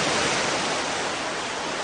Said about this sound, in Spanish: Ahora, el mar prolongaba un pacífico rumor de vaciante, como de voces que murmuran en secreto.